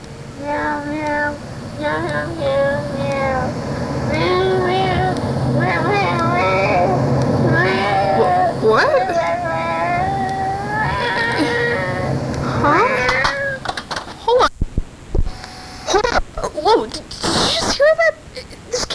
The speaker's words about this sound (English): It it's a cat song.